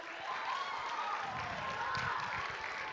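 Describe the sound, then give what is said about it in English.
A crowd at a school chapel service applauds in a steady, dense wash of clapping that holds for the full three seconds, with a few voices and cheers mixed into the noise. “Can we give a round of applause for our soap people?”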